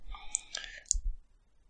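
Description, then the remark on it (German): A couple of quick, sharp computer mouse clicks, fairly quiet, with soft breathy noise around them and a low rumble, then near silence; someone clicking on an audio button on a screen, with no sound coming. “Ich versuche gerade hier mal auf den Ton zu klicken, kommt nix.”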